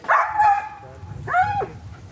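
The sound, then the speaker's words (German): A dog lets out two excited, whiny yelps, each a high, drawn-out bark-whimper with a short pause between, over a low background rumble, among other dogs during a test where people walk between the dogs. “Die Hunde sollten nicht aufeinander los, sondern das ist für sie normal. Er ist jetzt ein bisschen aufgeregt dort hier, das ist klar.”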